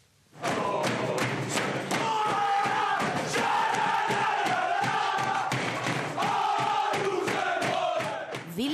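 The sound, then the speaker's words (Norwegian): Rosenborg football players cheering and shouting loudly in unison in their dressing room after securing a cup semifinal place against Tromsø, with rhythmic thumping and stamping throughout, a continuous boisterous celebration that stays at full volume for several seconds. “glede i Rosenborg-garderoben etter at de hadde sikret semifinaleplassen i cupen i går kveld.”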